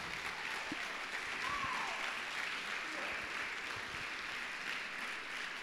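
A church audience breaks into sustained applause, a dense, steady wash of many hands clapping for several seconds at an even level, with a faint voice briefly rising through it.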